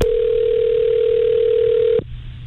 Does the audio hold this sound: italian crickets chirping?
no